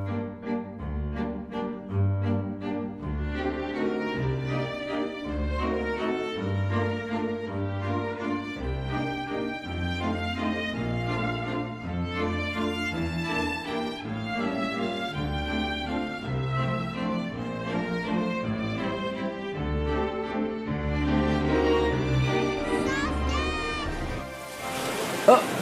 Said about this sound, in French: nous offre là une belle valse aérienne